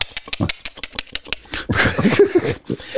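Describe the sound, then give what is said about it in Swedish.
A voice actor voicing the enemies imitates creature-like clicking, as of people who are no longer human clicking sounds between each other: a quick, uneven run of sharp clicks that swells into a denser, rattling burst of clicks and throaty sounds toward the end. “körde de eh, voice-artister för uh, fienden som i form av något, några människor som inte är människor längre som klickar ljud mellan varandra”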